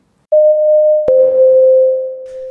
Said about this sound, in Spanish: Llegamos a la mitad de nuestro episodio de hoy y escuchábamos recién este pequeño separador